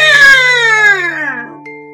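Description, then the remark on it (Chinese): A child's voice imitates a crow's harsh caw: one loud, drawn-out 'waah' that slides steadily downward in pitch for over a second, with a steady low hum underneath. “随着这一声刺耳的声调，奶酪掉下去。”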